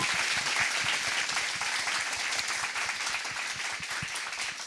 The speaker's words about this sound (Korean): 여러분 큰 박수 아, 예, 부탁드리겠습니다.